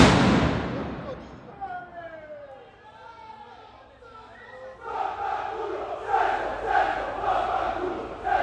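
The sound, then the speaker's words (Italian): A bomb explosion bursts at the very start and quickly fades, followed by a large outdoor crowd of travelling football ultras in Sesto shouting and chanting that grows louder toward the end. “ok beh un finale col botto di questa puntata c'è appena esplosa una bomba”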